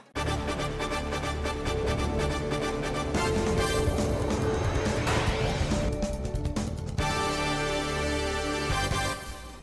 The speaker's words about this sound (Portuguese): Tem vinheta nova, é o Diário Semanal Pop-Up no ar.